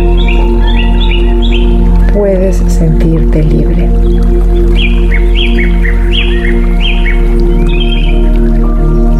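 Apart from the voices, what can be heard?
birds chirping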